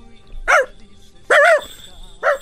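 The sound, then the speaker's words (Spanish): A person imitates a dog barking, giving three short, loud "woof" sounds spaced about a second apart, clear against a quiet background. “Quiero que digas, hazle como el perro.”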